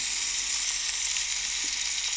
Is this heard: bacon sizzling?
yes